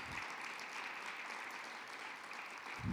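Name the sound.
audience applause ovation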